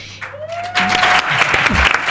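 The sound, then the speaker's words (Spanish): A burst of dense, loud applause for the Radio Primavera Sound production team breaks out after a short quiet moment and keeps going steadily, with a thin sustained tone fading out as the clapping builds. “Un aplausos para todos.”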